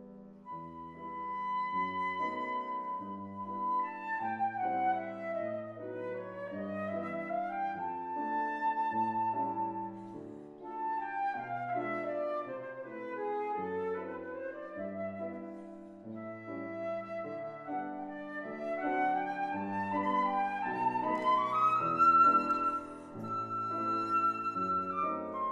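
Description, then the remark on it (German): A flute plays a flowing, ornamented melody that rises and falls over steady piano chords, the two instruments performing together in a duo concert at a moderate level with no talking. “Das, was ihr hier gerade hört, ist ein Duo-Konzert von Josephine Oleg an der Flöte und Marianne Salmona am Klavier”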